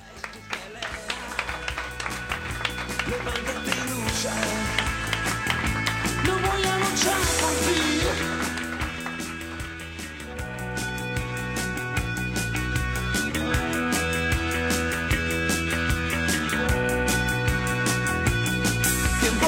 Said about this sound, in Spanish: y que solo podemos desde aquí trasladar a toda su familia y a sus amigos nuestro pesar y también nuestro sencillo homenaje en forma de este aplauso en memoria del desaparecido Alejandro Alsina.